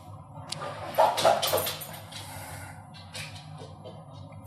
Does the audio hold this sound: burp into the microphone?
no